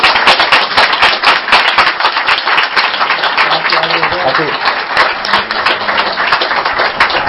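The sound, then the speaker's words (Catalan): An audience breaks into loud, sustained applause, a dense crackle of many hands clapping steadily throughout, with a few voices calling out partway through. “Bueno, pues un por aplaudimiento.”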